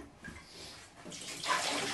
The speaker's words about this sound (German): Und ich frage mich gerade, warum ich den Topf mit Wasser fülle, wo ich doch Milch brauche.